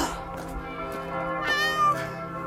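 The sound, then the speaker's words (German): A cat meows repeatedly with drawn-out rising and falling cries and a steady low hum beneath, with no talking over it. The cat is a shy one, outdoors up ahead of a person out walking. “Hört ihr die Katze?”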